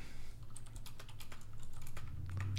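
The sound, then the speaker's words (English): Rapid typing on a computer keyboard while searching something online, a steady patter of crisp key clicks with a low hum underneath and no voices. “Uh, you're googling it. Don't even. act. I hear this. Key.”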